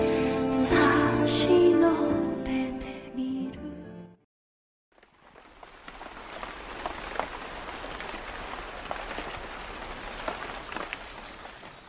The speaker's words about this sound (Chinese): 我喜欢这雨水的细腻和小心翼翼，像极了欲言又止的娇俏姑娘。有时那沙沙的雨声也像是一种呢喃，悄声细语的在你的耳畔徘徊。